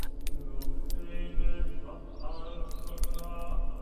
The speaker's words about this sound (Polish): Każdy krok stawiany na metalowej płycie wydaje odgłos pękającego szkła.